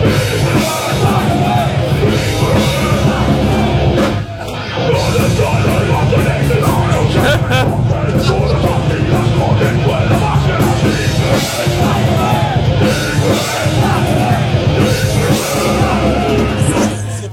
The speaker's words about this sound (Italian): ti facciamo sentire, che abbiamo trovato su YouTube, una versione di te che canti L'uomo tigre